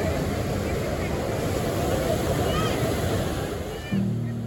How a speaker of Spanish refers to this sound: Lo único que se podía escuchar eran las olas rompiendo en la playa.